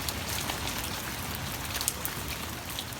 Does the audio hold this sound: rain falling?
yes